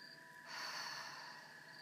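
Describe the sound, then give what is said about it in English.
A soft, steady inhale through the nose, quiet, swelling after a brief pause and holding as a gentle airy hiss for over a second, during a guided breathing exercise, with no talking. “Gently breathe in through your nose.”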